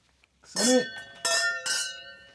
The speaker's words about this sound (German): Wir müssen glaube wieder mal anstoßen, oder? Wie wär's das mal mit Weingläser?